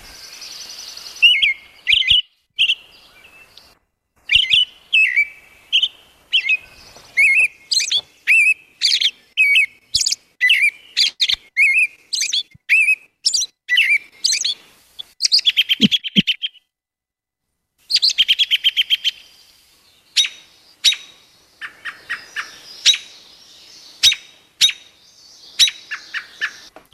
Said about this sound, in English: And a lot of times you can tell what bird it is just by the quality of the sound that it makes. So here's the rest of the robin.